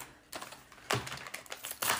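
Brown gift wrapping paper with green fir trees on it crackles and rustles as a present is unwrapped, in several quick, crisp bursts with a louder tear near the middle. No one speaks.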